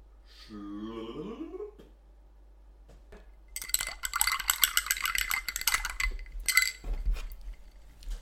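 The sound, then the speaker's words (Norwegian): Ice and glassware clink and rattle busily as a cocktail is mixed at a mixing station, a dense run of jangling taps lasting several seconds, preceded by a brief rising tonal squeak and a quiet pause. “Det var lyden av miksepulten.”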